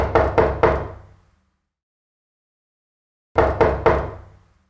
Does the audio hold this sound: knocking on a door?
yes